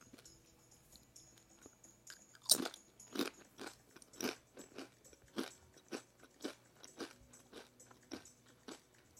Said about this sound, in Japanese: 美味しいねでどんたこを食べてますドンタこスって知ってますか三角のねオレンジ色のお菓子